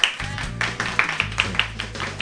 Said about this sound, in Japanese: えー、まあ拍手やめて